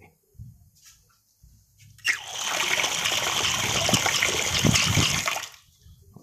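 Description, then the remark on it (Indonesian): Water pours steadily into a clear glass for about three seconds, a fairly loud rushing splash that starts abruptly and then tapers off, preceded by a few soft knocks and handling sounds. “suara gelas dengan suara apa suara air Gua tahu lu pingin denger suara semua suara kan nih nih suara air kayak gini”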